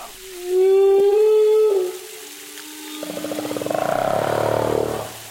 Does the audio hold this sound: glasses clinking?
no